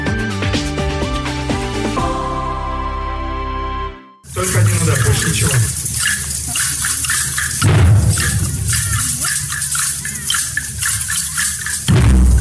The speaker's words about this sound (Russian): Сотни барабанов, тамбуринов, шейкеров и маракасов. Участники молодежного инновационного форума «Форсаж» объединились в большой оркестр.